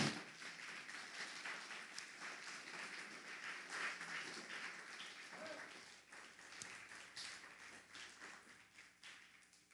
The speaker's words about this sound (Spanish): Todo mundo se tiene que alegrar. Y, si, y si es fiesta, es de alegría. Dele un fuerte aplauso de júbilo al Eterno.